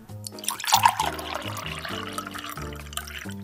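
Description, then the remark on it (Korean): Wine from a freshly uncorked bottle pours steadily into a wine glass at a winery in Napa Valley, California, a gentle trickling splash lasting a few seconds, heard over soft background music with low sustained notes. “와인병에 코르크 마개를 따고 와인잔에 따릅니다.”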